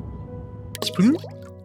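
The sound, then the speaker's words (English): A single wet plop of something going into a lake, with a brief splashy burst and a rising gurgle, fairly clear over a low steady background. “like something going into a lake.”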